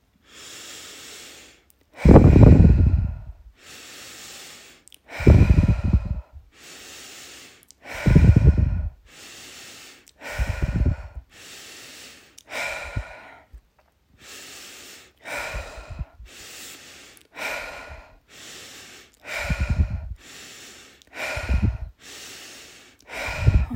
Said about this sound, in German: Und ich atme jetzt ein bisschen schneller und wenn du möchtest, kannst du gerne mitmachen oder du bleibst in diesem ganz entspannten Atmen, Atemrhythmus und genießt einfach deine tiefen Ein- und Ausatemzüge.